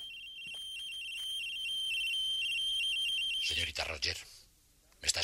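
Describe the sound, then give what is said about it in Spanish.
A white transmitter in a car sends out a shrill, steady electronic alert tone with a high, unwavering pitch for a few seconds, then brief bursts of garbled, voice-like sound cut in. “Pero en ese instante, el transmisor blanco comenzó a emitir una señal.”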